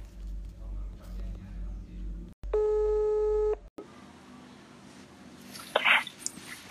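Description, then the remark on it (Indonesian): A single steady electronic ringback tone from an outgoing phone call to a friend in Bali sounds clearly for about a second, framed by low background rumble and a brief noisy rustle afterward. “Oke, gue langsung telepon aja kali ya orangnya.”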